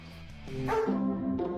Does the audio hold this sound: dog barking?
yes